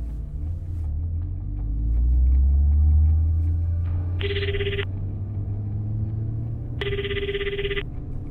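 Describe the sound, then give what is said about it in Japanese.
A car engine is started and rumbles low, swelling as the car pulls away, while two short bursts of a ringing phone cut in over the steady drone. No one speaks. “紙を書き上げた佐々木はエンジンをかけ車を走らせた”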